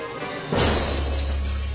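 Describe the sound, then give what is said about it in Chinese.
Doors and windows being smashed in: a sudden loud crash of window glass shattering, followed by a bright, sustained spray of tinkling fragments that keeps ringing and scattering for over a second, with no voices. “突然，门窗被打碎了，稀里哗啦的碎裂声中，一根烟杆快速将两个壮汉的颈椎一点，两个壮汉软塌塌的倒在地上，不能动弹。”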